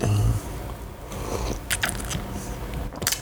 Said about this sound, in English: Let me take a sip of my bulletproof coffee real quick.